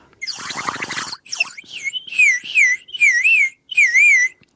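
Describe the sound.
A water whistle opens with a bubbly, gurgling burst, then warbles out four loud trilling phrases imitating a cuckoo's call, with short gaps between them, heard alone without any voices.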